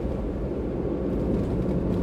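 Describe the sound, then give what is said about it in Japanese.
A steady, low droning rumble of engine and road noise inside a moving car driving to a customer's place, continuous and even in loudness throughout, with no voices. “今は車用車でお客さんの先に向かっております”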